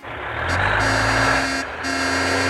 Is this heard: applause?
no